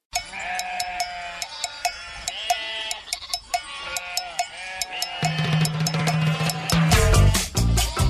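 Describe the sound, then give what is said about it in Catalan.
Sheep bleat repeatedly over a steady clinking of cowbells, the flock growing busier and louder toward the end, with overlapping bleats and jangling bells. “Es passava tot el dia vigilant les seves ovelles i com que s'avorria veient-les pasturar, molts cops s'empescava coses per divertir-se.”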